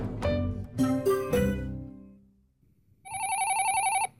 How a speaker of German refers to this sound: Hä? Das Telefon? Wieso klingelt denn jetzt das Telefon?